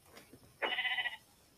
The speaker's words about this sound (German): Okay, nee, da hinten ist ein Schaf. Das gehen wir uns mal holen.